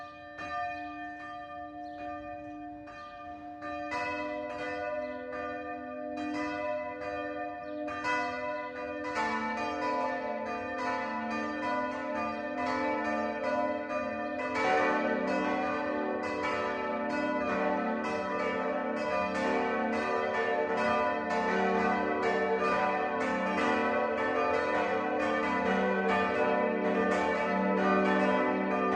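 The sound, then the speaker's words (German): Church bells of the Catholic parish church St. Bartholomäus in Buttenheim, Upper Franconia, Germany, ring the 12 o'clock noon peal, with more bells joining in stages until a dense, overlapping wash of metallic strokes and humming tones rings on steadily and loud, with no voices. “Das Mittagsläuten kommt heute von der katholischen Pfarrkirche St. Bartholomäus im oberfränkischen Buttenheim.”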